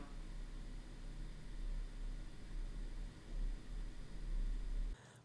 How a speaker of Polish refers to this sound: A to są mikrofony DPA 4060 włożone do uszu i podłączone do Zooma H4N. Szumi to tak. Pewnie tu już będzie słychać szum komputera.